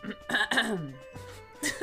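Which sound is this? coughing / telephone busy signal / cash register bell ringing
coughing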